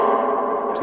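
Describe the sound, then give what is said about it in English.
Heavy echo from a small concrete room, with a smeared, voice-like tone ringing steadily for just under a second. “And like I said, I'm sorry about the echo, but we're in a totally concrete small room, so the echoes are rough.”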